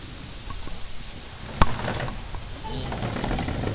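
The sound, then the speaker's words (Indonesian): A steady wash of wind-driven rain hisses and patters throughout, with one sharp knock or thump partway through and no voices. “apa sih tapi hujannya mulai terkena angin iya bentar lagi geser aja”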